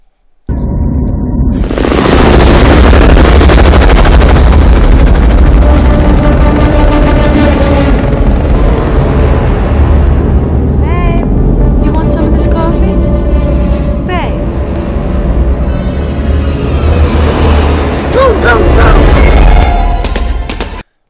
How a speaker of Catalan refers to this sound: En el cinema, escoltar ixe helicòpter per darrere com entrava en baixa velocitat era brutal, per això vos heu ficat a un volum tan alt.